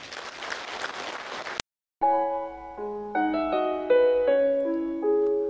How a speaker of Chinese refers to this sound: 证明他很想把企业做的长久，做的真正的源远流长，所以要把掌声送给他。